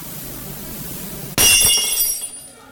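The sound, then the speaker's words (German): A drinking glass is thrown and shatters with a sudden, loud crash, followed by a bright spray of tinkling shards that ring out and fade over about a second, with no one speaking. “Was fällt dir ein, mit Gläsern herumzuschmeißen?”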